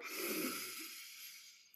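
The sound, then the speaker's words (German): A single long, deep breath drawn in during a yoga breathing exercise, airy and hissing, fairly soft, strongest at the start and slowly fading over about two seconds. No one speaks. “Einatmen, noch einer mehr.”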